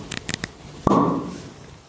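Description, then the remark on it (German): A few quick creaky clicks, then a single sharp pop as a cork comes out of a bottle of Kabinett wine, followed by a brief hollow ring that fades out. No one speaks. “Das hört sich doch gut an. Herrliches Geräusch.”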